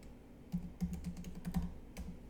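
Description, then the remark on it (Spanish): Quick keyboard typing of a greeting into a comment note in a PDF: a handful of crisp key clicks in an uneven rhythm, about seven or eight taps over a couple of seconds, with no one talking. “Pero hago clic aquí y pongo hola, ten en cuenta”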